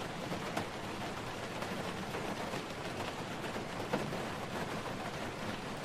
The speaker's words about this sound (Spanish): Aquí tenemos una lluvia en auto. A ver.